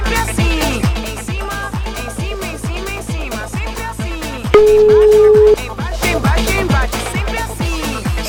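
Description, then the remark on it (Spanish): A single steady telephone ringback tone lasting about a second, from an outgoing call to another person, rises over a loud, driving rhythmic music bed with a thumping beat. No one speaks. “Estamos llamando a otra personita ahora”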